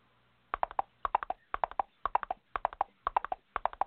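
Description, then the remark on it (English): Hooves of Leroy's horse, brought to work, clip-clop in a steady, repeating rhythm of sharp knocks grouped in quick clusters, clear, with no voices over them. “Leroy brought his horse to work again.”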